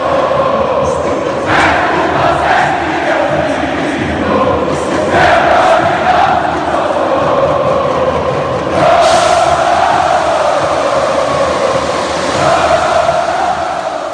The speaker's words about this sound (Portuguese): Agora a torcida do Vozão também tá cantando alto.